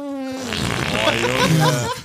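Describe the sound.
A person imitates a fart with their mouth, copying real farts from earlier, a sustained buzzy, sputtering raspberry lasting about two seconds, fairly loud, with a wobbling pitch and no clear speech.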